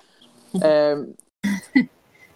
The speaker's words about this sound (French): Euh, je, m'occupe de mon bébé un peu en même temps. ça se peut que vous entendez des petits gazouillis.